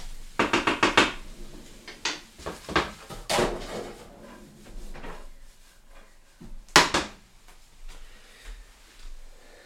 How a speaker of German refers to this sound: Ja, ich habe gerade nochmal die Pfanne geschwenkt. Riecht schon wirklich gut.